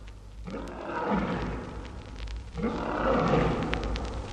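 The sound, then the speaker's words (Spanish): An elephant bellows twice in quick succession in fear at the smell of a tiger, each call a long, loud, rough roar lasting a couple of seconds, with no talking. “Del olor del tigre no más, brama con espanto el elefante.”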